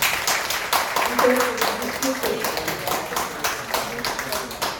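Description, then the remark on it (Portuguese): A round of applause from a group at a beauty salon business meeting, given for the group's results, dense overlapping claps in a steady crackling wash, with voices murmuring and calling out underneath. “Então eu queria dar um, uma salva de palmas, eu acho que para o nosso resultado, né?”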